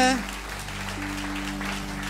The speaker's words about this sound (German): Lasst uns mal ganz kurz unseren lieben Pastoren, die gerade bei Seafree Imagine in Amsterdam predigen, lasst uns denen mal einen ganz liebevollen Applaus geben.